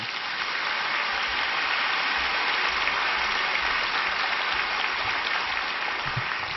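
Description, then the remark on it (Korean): A church audience applauds warmly to welcome the senior pastor before his sermon, a dense, steady wash of many hands clapping together at an even loudness throughout, with no voices or breaks. “우리 뜨거운 박수로 우리 목사님 환영하겠습니다.”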